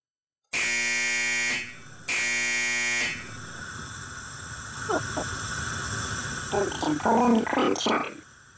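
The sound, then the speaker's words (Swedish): Two loud, harsh electronic buzzer blasts from a pressed button, each about a second long with a short gap between, followed by murmuring voices and light background chatter. “Så, så, låt, så, låter det när vi quenchar.”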